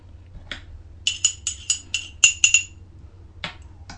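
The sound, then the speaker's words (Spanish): A coffee cup clinks and rings with a quick run of about eight bright, ceramic taps as someone takes a second sip of coffee, with some faint scraping before and after, and no talking. “Después de este segundo buchito de café, me voy con la tierra, la agricultura.”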